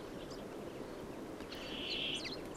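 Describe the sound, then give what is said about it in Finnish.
A short burst of common chaffinch song, a quick bright phrase ending in a flourish, over a steady rushing background hiss, with a faint chirp earlier. “Viikon luontoääni: Peippo”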